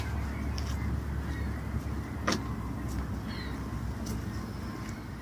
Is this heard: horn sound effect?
no